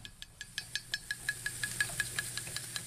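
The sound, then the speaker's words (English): Ink sizzles and crackles on a printing press roller in quick, evenly spaced ticks, about six per second, over a low, steady machine rumble; no one speaks. A teaspoon of black ink is being poured onto the roller of a press the size of a buffalo while a poster is being printed. “pouring a teaspoon of black ink onto the roller of a machine the size of a buffalo”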